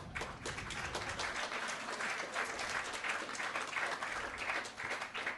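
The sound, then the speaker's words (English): An audience breaks into sustained applause in answer to a question put to it, many hands clapping densely and steadily for several seconds at moderate volume, with no voices standing out. “by round of applause, who is very confused right now about Star Wars?”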